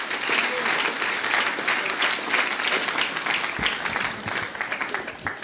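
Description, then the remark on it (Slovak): A church audience gives the Lord a hand clap, breaking into steady, sustained applause, dense overlapping hand claps holding at a fairly loud level for several seconds before tapering slightly at the end. “Give the Lord a hand clap right there.”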